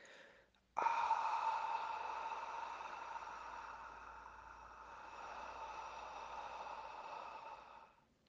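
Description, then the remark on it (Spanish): A long, slow breath pushed out through the mouth as part of a breathing exercise, making a fogging-breath sound, a steady airy hiss that starts abruptly and fades gently over about seven seconds. “Consiste en inhalar por la nariz en 6 segundos, retener tu respiración 3 segundos, exhalar por la boca en 9 segundos, haciendo el sonido del vaho, así.”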